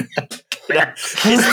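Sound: cough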